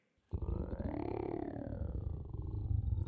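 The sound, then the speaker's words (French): A loud, deep stomach growl kicks in abruptly and rumbles on for nearly three seconds, a low, gurgling drone that swells slightly in pitch before settling, with no voices over it. “les grognements d'estomac retentissent de nouveau, pendant que Brovure déguerpit en quatrième vitesse.”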